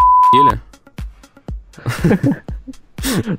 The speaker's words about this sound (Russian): Я попрошу нашего звукорежиссера быть готовым к тому, что нужно запикать одно слово